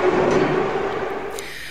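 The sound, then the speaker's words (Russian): A subway train rumbles along with a steady, dense roar and a faint whining tone riding on top, loud, holding constant with no voices. “Это действительно метро.”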